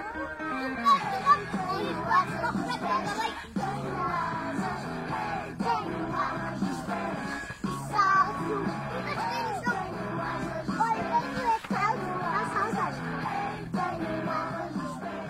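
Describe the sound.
A lively group of young children aged 3 to 5 play and chatter outdoors, exploring nature to the music they like most at Quinta das Conchas in Lumiar. Their overlapping voices are steady, broken now and then by louder shouts and excited yells.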